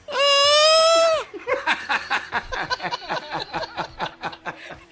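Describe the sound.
A voice imitates Mechagodzilla's roar with a loud, strained, high-pitched screech lasting about a second, then breaks into several seconds of rapid laughter.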